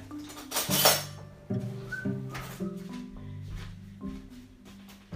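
A spoon scraping quark out of a container, a series of uneven scrapes with light clinks and squeaks against the sides, no talking.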